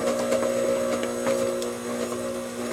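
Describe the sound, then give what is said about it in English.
A stand mixer runs on very low speed as eggs are added one at a time and the mixture loosens, giving a steady motorized whir with a strong droning hum that runs continuously with slight fluctuations in its tone. “But you can hear the sound of the mixer changing because the mixture is now considerably looser.”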